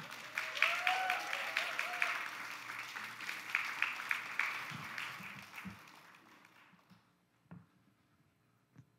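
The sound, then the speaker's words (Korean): A church audience applauds in welcome as a preacher comes up to deliver the sermon, a dense wash of clapping that runs steadily for about five seconds, then thins and fades, leaving a few scattered claps and shuffles at the end. “우리 뜨거운 격려의 박수로 우리 환영해 주시면 감사하겠습니다.”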